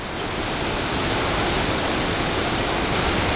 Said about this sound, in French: Les cascades, nous les entendions, mais elles étaient difficiles à trouver